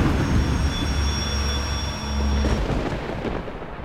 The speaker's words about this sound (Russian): И в этот же миг дождь смыл нас.